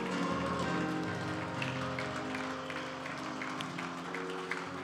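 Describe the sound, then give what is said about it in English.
A church audience claps steadily for about five seconds, giving the Lord a hand after a sermon: a dense, even crackle of many hands over sustained low musical tones, with no one speaking. “Give the Lord a hand for that word today.”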